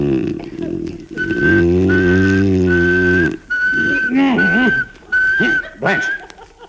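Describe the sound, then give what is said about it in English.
Someone whistles a single flat, monotone note, held in several long stretches with brief breaks, while low droning and wavering vocal sounds play underneath, fairly loud. “they say if you whistle in a monotone, maybe that'll work.”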